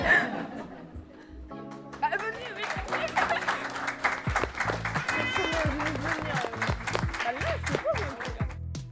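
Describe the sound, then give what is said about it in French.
Parents in an evening audience break into sustained applause after a class presentation, a dense steady patter of clapping mixed with chatter, chuckles and laughter, lasting for several seconds. “Et on invite euh, les euh, journalistes à nous rejoindre et les parents aussi à nous applaudir pour...”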